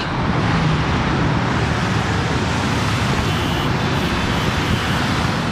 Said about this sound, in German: Der Straßenverkehr.